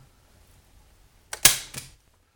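A staple gun fires staples through paper into wood in a quick cluster of sharp mechanical snaps, the loudest one in the middle, otherwise quiet with no talking.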